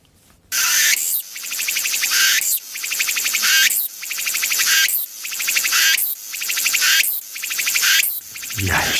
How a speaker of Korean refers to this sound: 마지막으로 애매미 소리 들어봅니다. 애매미.